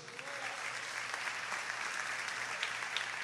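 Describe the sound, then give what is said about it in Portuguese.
A church audience applauds the name of God during a sermon, a dense wash of many hands clapping steadily at an even, sustained loudness for several seconds with no voices rising above it. “Você pode aplaudir o nome dele?”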